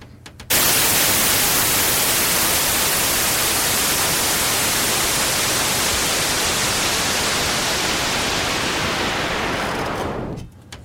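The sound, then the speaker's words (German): Loud, steady white-noise hiss begins abruptly and holds for about ten seconds while its brightness slowly dulls as a low-pass filter sweeps down, then cuts off suddenly into near silence. “Das mache ich jetzt mal, indem ich von 20.000 Hertz an abschneide und zu 0 Hertz runtergehe. Und halt eben eine Wild Noise habe und dann immer weniger von den oberen Frequenzen höre.”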